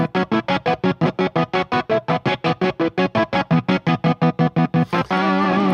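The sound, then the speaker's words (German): A rapid, steady stutter of chopped electric guitar chords, switched on and off about four times per second with a kill switch, then released into a sustained, echoing wash of guitar played through echo effects for the final second. “Und er hat natürlich, was die Echo-Geräte angeht, auch diesen ähm, Kill-Switch, diesen, diesen Schalter umlegen, auch natürlich sehr gerne mit Echo gespielt, was wir jetzt mal hören.”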